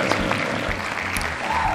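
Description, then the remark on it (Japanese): A short burst of hands clapping to welcome a guest church pastor, a dense steady patter of applause from a small group that holds at an even level for the whole moment, with no voices. “拍手パチパチパチパチパチ”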